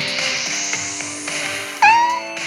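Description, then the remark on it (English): A black rescue cat named Annie gives one short, clear meow near the end, fairly loud, over a steady background hum. No one speaks. “also has with her her black rescue cat, Annie.”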